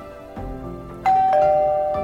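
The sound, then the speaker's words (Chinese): A doorbell chimes as a daughter and three classmates arrive at the door: a bright, sustained electronic tone that rings out and slowly decays, two quick strikes close together, over a soft hum. “门铃响了，打开门，看见女儿和三个同学”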